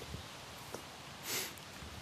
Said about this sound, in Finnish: Tuuli se havisuttelee haavanlehtiä täällä